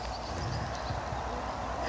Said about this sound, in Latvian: jo te stāv zirgi